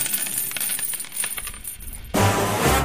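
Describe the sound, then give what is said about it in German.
A coin drops and bounces with a series of bright metallic clinks that come faster and closer together, followed by a louder, rougher ringing clatter as it settles. No one speaks. “spanne er die Pferde ein und spute sich, denn springend klingt die Münze.”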